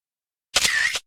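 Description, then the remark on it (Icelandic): A camera shutter click, taken for a selfie, sounds once, lasting about half a second, with a sharp snap at the start and another at the end joined by a brief bright whir. Nothing else is heard. “Selfie á það”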